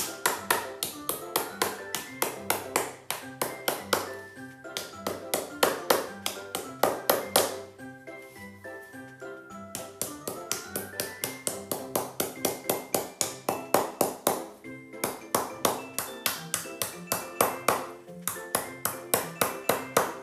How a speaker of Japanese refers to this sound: 次にですねこの釘、えー、あると邪魔な立ってると邪魔なんですねなので全部ハンマーで叩いて寝かしてしまいます内側に向かって叩いて完全に倒してしまって構いません。